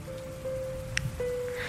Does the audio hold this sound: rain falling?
yes